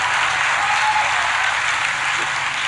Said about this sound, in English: Look how soft them claps are like, oh, I don't even want them to know.